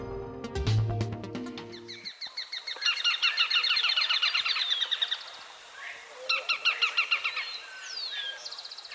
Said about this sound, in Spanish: estamos oyendo al rastrojero o chamicero pizarra, en una grabación captada en Valle del Cauca. Este pajarito, que mide unos 15 centímetros, se alimenta de insectos y arañas y le encanta vivir entre los rastrojos.